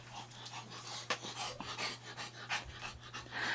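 A dog pants heavily and rapidly, rough breathy huffs repeating in a steady rhythm over a faint low hum, with no one speaking.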